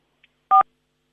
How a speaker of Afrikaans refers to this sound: Ek dink jy oordruk teen die foon en dan maak hy so piep piep heeltyd hier by ons.